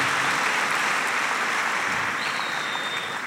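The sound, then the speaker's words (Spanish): A church audience claps steadily and densely for the Lord, a full, sustained wash of applause from many hands, with a faint high tone appearing near the end. “Dele un aplauso al Señor.”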